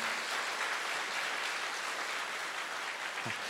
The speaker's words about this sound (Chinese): 嗯，我是真心的希望，我而且我真心的相信，刚刚的掌声是给我们的神，这是一个荣耀的教会。